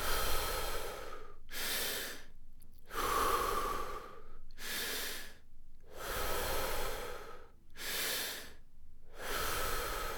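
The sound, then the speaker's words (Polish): Deep, rhythmic breaths of a breathing exercise follow one another steadily, each a full inhale or exhale with a broad airy rush, fairly loud, with brief pauses between them and no talking. “Skup się na oddechu.”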